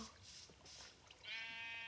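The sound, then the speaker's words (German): A sheep bleats once, a loud, wavering baa that starts partway through and holds to the end, after a moment of soft rustling. No one speaks. “Schwarzes Schaf bringt dir angeblich Unglück.”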